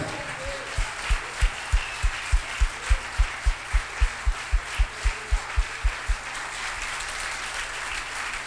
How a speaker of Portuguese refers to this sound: Vamos dar uma salva de palmas a Jesus, vai? Se é para Ele, faz direito.